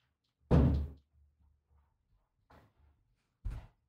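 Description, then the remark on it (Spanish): A door on a set, moving by itself, thuds heavily, followed by a faint creaking bump and then another solid knock a second later, with quiet rattling in between and no voices. “Empezó una puerta a moverse sola en el set, lo que están preocupando.”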